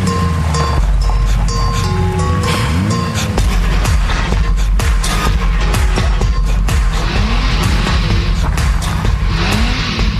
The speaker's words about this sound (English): All of a sudden, the car passes by.